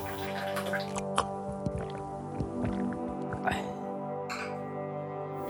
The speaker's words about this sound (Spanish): Disculpen, tomo un poco de agua.